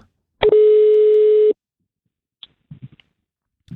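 A single loud, steady telephone ringing tone sounds for about a second while a call is placed to get a guest on the line, followed by quiet with a few faint, scattered clicks and rustles.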